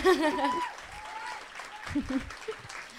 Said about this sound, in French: on peut les applaudir quand même, bravo, merci.